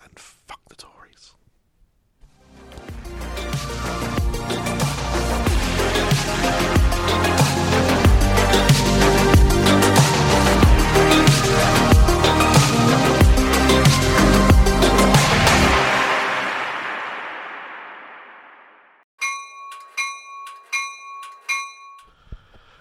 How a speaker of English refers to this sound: Okay, that's the spoiler bell thing noise that I put in. Um, this is spoilerville, and I I mean this is huge spoilerville.